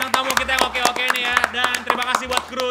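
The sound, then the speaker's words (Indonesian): Several sharp claps ring out in a quick, uneven rhythm for a few seconds, mixed with voices and a low steady hum underneath. “Oke, teman-teman tepuk tangan dulu buat”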